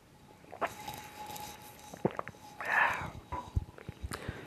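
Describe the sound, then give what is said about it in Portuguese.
Quiet drinking sounds: soft clicks and handling noises, then a brief swallowing gulp of water, followed by a few small mouth and cup sounds. No one speaks. “Deixa eu dar um, gole na minha água aqui”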